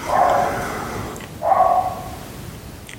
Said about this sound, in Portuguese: Um, por isso, já e voltaram a ladrar os cães. Fazem, tão loucos.